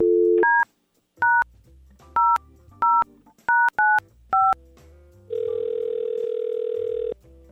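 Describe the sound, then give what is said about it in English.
A brief tone, then a quick, uneven run of about seven short keypad dialing beeps, followed by a long, steady ringing tone as radio hosts on Y100 place a phone call. The tones are loud, with no talking. “Let's give Faye a call and see what's happening and maybe pay for that second date.”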